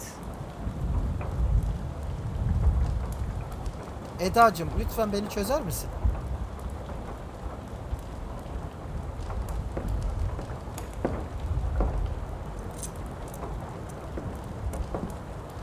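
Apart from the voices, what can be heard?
falling rain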